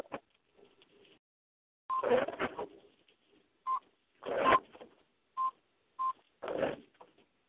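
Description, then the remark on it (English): Several short telephone dialing tones beep at uneven intervals over a phone line, interleaved with brief bursts of crackly, rustling noise; no one speaks. “Who ringing out?”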